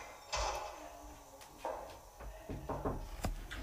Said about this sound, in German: Sie macht die Tür wieder zu.